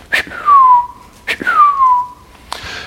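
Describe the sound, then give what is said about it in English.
A person whistles an imitation of a bird's call heard out back in the morning: two loud, downward-sliding whistled notes, each starting with a sharp attack, then a brief breathy start of a third. “Well, this morning I walk out back, and I hear it that call really, really loud. It's really close.”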